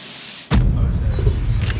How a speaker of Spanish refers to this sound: Un coche oscuro salta por los aires.